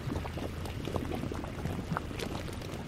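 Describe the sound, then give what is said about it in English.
Thick mud bubbling and popping continuously at the Fountain Paint Pot in Yellowstone National Park, mud with oxidized iron bubbling up from the caldera, a dense burble of wet plops and gurgles with no voices. “It gets its name from the bright yellows, reds, and browns of the oxidized iron in the mud that bubbles up from the caldera.”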